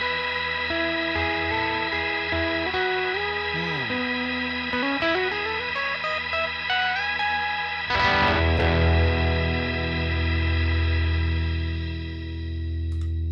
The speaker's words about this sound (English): So you can do kind of a uh, make pad sounds with it right by diming the depth, and when you turn it off, it's just going to sit there and so, keep doing that.